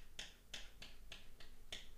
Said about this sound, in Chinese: 能听到吧？就是我是用这个西装的扣子在敲桌子。但是电影里头，他要给观众后来明白的是，这是一个狗狗哈，也就是这个影片里头的明星狗哈，名字叫 Snoop。